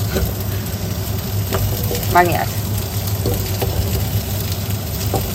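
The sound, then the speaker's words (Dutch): Asparagus sizzling in a frying pan, a steady crackling hiss with occasional pops and scrapes, while a person speaks briefly over it. “Zo, nu zijn ze in de pan.”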